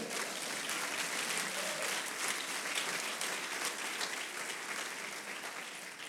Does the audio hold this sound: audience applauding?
yes